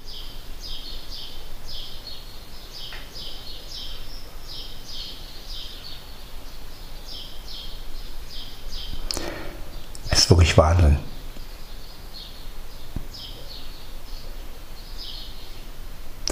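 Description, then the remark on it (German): Birds chirp steadily outdoors, with rapid high-pitched calls repeating throughout. A brief burst of rustling or handling noise interrupts midway over a quiet background hiss. “Man hört wirklich nichts, ne? außer die Vögel.”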